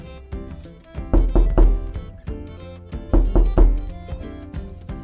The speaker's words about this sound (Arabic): في احد الايام دق عليه جاره الباب